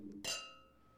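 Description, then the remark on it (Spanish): A single bright clink of wine glasses touching in a toast, ringing out with a clear, sustained tone that slowly fades; fairly quiet, with no talking. “Y pues ahora sí que vamos, vamos pues a salud.”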